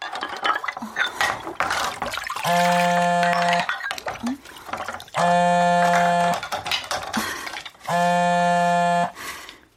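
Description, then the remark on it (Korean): Dishes clink and scrape in a sink basin with water splashing as someone washes up wearing rubber gloves, while three long, loud electronic buzzing tones from a mobile phone on vibrate repeatedly cut in over the washing-up clatter. “정민은 설거지를 하다 말고 얼른 개수통에서 손을 꺼내 고무장갑을 뺄 틈도 없이 전화기를 집어들었다”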